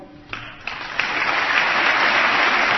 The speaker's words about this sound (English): Applause there for science, apparently. Yeah. You can hear John Boehner sitting on his hands.